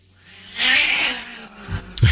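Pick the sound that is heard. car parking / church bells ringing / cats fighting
cats fighting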